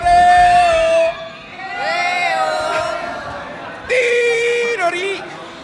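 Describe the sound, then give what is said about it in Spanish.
A live crowd at a Melodía FM radio event in the Torre Cárdenas shopping centre in Almería, Spain, shouts and cheers in sustained, loud bursts, with voices overlapping into a roaring wall of sound that swells three times over a few seconds. “Hola Almería, ¿cómo estáis? un grito, grito.”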